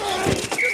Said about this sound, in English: Ah, the sweet sound of sports you love from Sling. The collide of football pads.